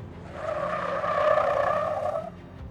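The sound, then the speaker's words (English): A van's brakes slam on and its tires skid with a loud, sustained squeal lasting about two seconds as the driver of a van carrying French correspondents stops, with no one speaking. “The driver slammed the brakes,”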